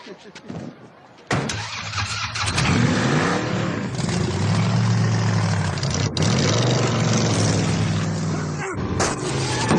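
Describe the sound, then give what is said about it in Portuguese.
A powerful Viper sports car engine, 500 HP with a Borla exhaust system and 0 to 100 km/h in 4.3 seconds, fires up with a sharp burst and then revs loudly, its deep exhaust roar rising and falling in strong sweeps before cutting briefly near the end. “E o Viper do papai? Essa fera tem 500 HP e um sistema de escapamento borla.”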